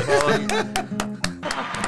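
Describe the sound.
Brief applause from a few people, sharp claps in a fairly steady rhythm, mixed with voices talking and laughing over them.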